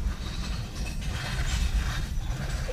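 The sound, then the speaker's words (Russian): A Chinese car with a 98-horsepower 1.5-litre engine: its manual gearbox rattles and clunks inside a steady, loud low rumble of the moving vehicle, continuous for the whole stretch with no one speaking. “В данном конкретном случае какие-то неурядицы с механической коробкой передач”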